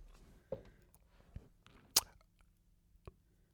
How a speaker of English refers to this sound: Bless you, my darling. And again, is there a third one there? No. Okay, good. You know, people that sweet sneeze three times, I find them a bit strange.